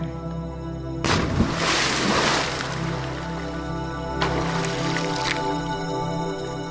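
A person takes a running jump into water: a sudden splash, followed by churning and sloshing, then a second, smaller wash of water a few seconds later, over a steady low background hum.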